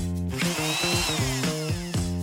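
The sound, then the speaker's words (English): A power drill whirs loudly, its motor whine rising and falling in pitch through several quick bursts of revving without pause. “Tool call. Hammer. Hammer. Wrench, wrench. Drill, drill.”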